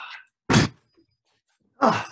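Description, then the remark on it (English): Two doors are shut one after another as rain begins, each closing with a solid, loud thunk about a second apart, preceded by a brief soft rustle and separated by quiet. “I'm going to shut these doors because the rain's coming.”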